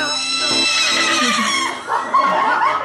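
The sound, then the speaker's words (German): A person imitates a horse's neigh, a loud, wavering whinny that shakes and rises in pitch before breaking into a short snorting finish, heard on its own. “Unter anderem auf ein Video, wo du ein Pferd nachmachst.”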